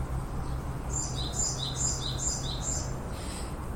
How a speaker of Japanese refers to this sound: 今鳴いてる鳥がこの間から気になってるんですけど何の鳥かわかる人がいたら教えてくださいなんだろうこれ